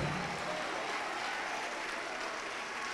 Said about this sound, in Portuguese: Vamos aplaudir mais, vamos aplaudir mais, vem. Vamos aplaudir mais, está chegando.